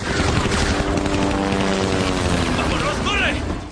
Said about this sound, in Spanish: Se detienen en seco al oír un ruido y miran al cielo desconcertados. ¡Mira! Dos helicópteros sobrevuelan el monasterio.